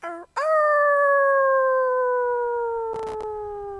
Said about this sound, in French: À ce moment-là, une des louves au pelage doré se lève pour hurler à la lune.